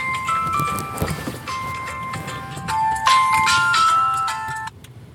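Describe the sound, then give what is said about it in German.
A phone rings with an awaited return call from a car rental company in Nairobi, a bright, stepping electronic melody of high tones that repeats for several seconds over faint background noise, then cuts off abruptly. “Jetzt warten wir auf den Rückruf, da kommt der.”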